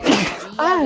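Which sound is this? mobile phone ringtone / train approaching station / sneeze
sneeze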